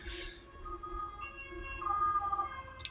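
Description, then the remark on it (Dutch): An ambulance siren wails on a road beside a home with steady, wavering tones over low traffic rumble, growing slightly louder as it passes. No one speaks. “sorry voor de ambulance.”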